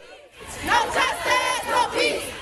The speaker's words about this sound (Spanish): Los alumnos de este colegio de New Jersey marcharon demandando leyes para el control de armas a nivel nacional.